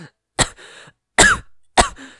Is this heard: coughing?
yes